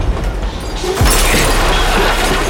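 A train car rumbles and clatters along the rails in a steady, dense roar that swells louder about a second in, with low rhythmic knocks beneath and no voices.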